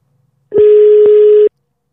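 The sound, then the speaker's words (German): A telephone dialing tone sounds as one steady, electronic beep lasting about a second, loud, with soft clicks at its start, middle and end, as someone places a phone call. No one speaks. “Deswegen rufe ich da mal an und ich hoffe, dass es klappt.”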